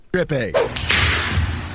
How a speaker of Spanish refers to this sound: no, es un latigazo eso, no.